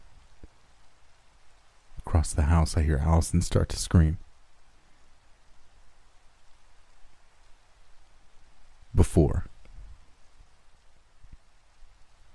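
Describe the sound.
Steady rain hisses softly throughout, a constant even patter in the background, while a voice narrates briefly over it in two short stretches.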